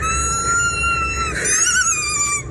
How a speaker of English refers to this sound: The Texas teen was chewing on a dog toy to bother his mom when he was supposed to be getting ready for a camping trip.